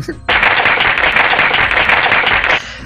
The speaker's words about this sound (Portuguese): Palmas.